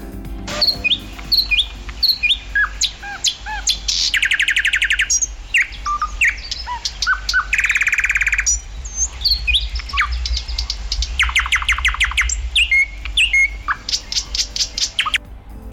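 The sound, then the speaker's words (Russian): A common nightingale, a small grey bird, sings loud with no talking, alternating clear whistles, rapid repeated chirps and dense buzzing trills in quick varied phrases over a low steady background hum. “Давай послушаем, как поет соловей.”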